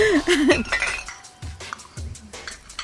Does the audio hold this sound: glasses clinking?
yes